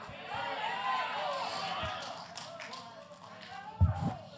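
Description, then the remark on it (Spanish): An audience gives a thin, scattered round of applause mixed with many voices calling out, a steady, moderately loud crowd wash with a couple of sharper low thumps near the end. “Si ese aplauso es para mí está bueno, pero si es para Dios tiene artritis.”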